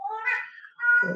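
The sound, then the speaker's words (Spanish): A cat lets out a single drawn-out meow, fairly loud, rising then trailing off into a second, rougher note. No one speaks over it. “ay, disculpen mi gato”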